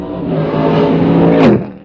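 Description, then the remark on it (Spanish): The Chevrolet LS3 V8 engine of a Mustang race car, about 500 horsepower, drones loudly on a race track, its pitch climbing steadily before dropping away at the very end, with no voices. “Los motores, este son el Chevrolet LS3. Que es el que funciona. Funciona, mira, ese, ese carro aquí tiene ahorita, el Mustang, ya tiene casi 600 vueltas en la pista”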